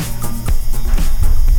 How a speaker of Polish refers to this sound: NASA publikuje zdjęcia z Marsa i jeszcze dodatkowo znalazłem dźwięk z Marsa. Gdzie to nasze fakty go grały. Mar- Mars brzmi tak.